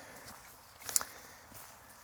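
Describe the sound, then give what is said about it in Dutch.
Soft footsteps crunch along outdoors at a steady walking pace, heading toward an open clearing, with one sharper, louder step partway through; faint, with no voices. “En dan lopen we zo op de open plek af.”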